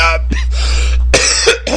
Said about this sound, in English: I'm um, sorry about my coughing earlier, by the way.